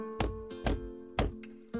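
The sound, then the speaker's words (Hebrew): Four heavy knocks on a door at an uneven pace, each a dull thud with a short ring, heard over a soft, steady tonal hum. “יום אחד נשמעה דפיקה על הדלת.”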